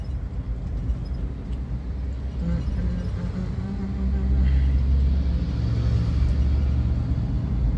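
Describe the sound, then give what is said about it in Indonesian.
Steady low-frequency road rumble from inside a car moving at about 60 km/h on an empty road, a continuous drone with tire and engine hum that swells slightly louder partway through, with no talking. “suara mobil-mobil dari luar kedengeran gitu ini jalanan kosong sih ini gue kecepatan sekitar 60 km per jam nih”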